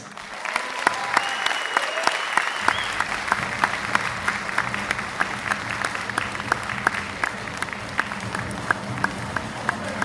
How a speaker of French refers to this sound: Je vous demande un tonnerre d'applaudissements pour Peter Williams.